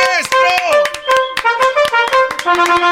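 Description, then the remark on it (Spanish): One person claps quickly and steadily, sharp hand claps repeating throughout while a loud voice calls out "¡Bravo, maestro!" enthusiastically over them. “Espérenme, déjenle aplaudo.”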